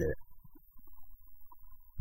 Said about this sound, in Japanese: また今ちょっとなんか、ね、込み上げてくる、ゲップみたいなものが込み上げてきて、こう一気に喋ると、こう、なんていうんですかね、口から空気も吸ってしまうって感じなんですかね。